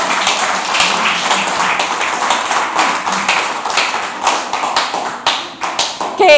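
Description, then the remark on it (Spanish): A crowd breaks into sustained applause for the Lord, many hands clapping together in a dense, steady wash that stays loud throughout, with a few sharper individual claps standing out near the end. “Démosle un aplauso al Señor, porque el Señor es bueno, maravilloso y bondadoso.”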